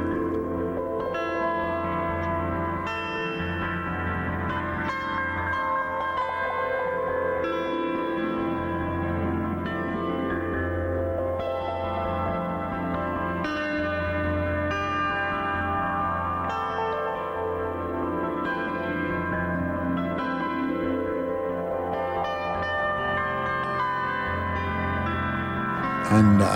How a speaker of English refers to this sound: but the zither is a 36 stringed